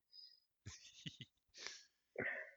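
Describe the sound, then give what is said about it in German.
A single sneeze with a sharp inhaled buildup, a forceful burst and a breathy wheezing trail, with no talking. “Dein, dein Nieser ist Beweis genug dafür, dass das passt.”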